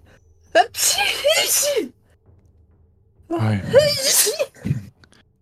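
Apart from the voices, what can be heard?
repeated sneezing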